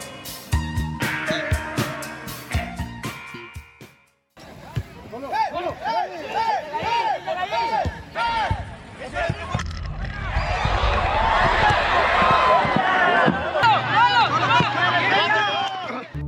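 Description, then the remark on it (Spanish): A staged recreation of a league football play: thumps and scuffling footsteps under shouting voices as a defender kicks the ball from his own area, the goalkeeper misjudges it and the ball goes into the goal; then a loud crowd roars and jeers for several seconds before the noise cuts off. “Lo que acaban de escuchar es recreación de una jugada en la Liga Escandón, en la cual el defensa la patea desde su área.”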